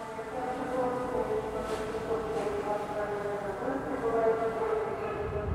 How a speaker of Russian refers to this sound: Э, вспомните, как звучит объявление на вокзале, э, где кроме эха ничего невозможно разобрать.